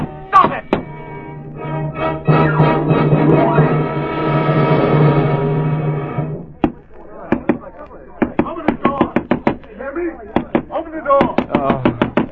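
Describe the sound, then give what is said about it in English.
A long, drawn-out vocal sound gives way to loud pounding knocks on a door, hammered repeatedly in quick, irregular bursts for several seconds. “What's that pounding? Pounding, pounding.”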